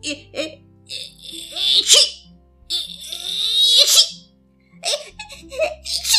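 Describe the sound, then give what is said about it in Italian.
A voice acts out three more sneezes by the character Mangiafuoco in the Pinocchio story, each a drawn-out breathy 'eh-eh' build-up snapping into a sharp hissing burst, spaced about two seconds apart. “fece altri tre starnuti.”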